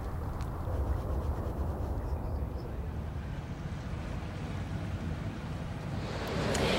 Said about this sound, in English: And that's rather more like these water waves.